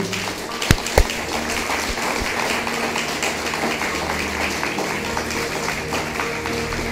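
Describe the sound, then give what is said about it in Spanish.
Steady applause from an audience for the whole virtual church, a dense crackling wash of many hands clapping that holds even for about seven seconds, with two sharp louder claps standing out near the start. “¿Por qué no le damos un fuerte aplauso a toda la quejilá virtual?”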